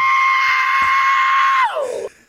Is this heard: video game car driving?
no